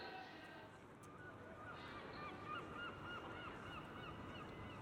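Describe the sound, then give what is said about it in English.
A chorus of seagulls by a harbour calls over one another, their overlapping squawks and cries rising and falling continuously against a steady wash of outdoor background noise. “Once outside the building, they find a place to stop by the harbour where, Accompanied by a choir of seagulls, they read the first of four wild cards that all travellers are given to read and reflect upon on their journey.”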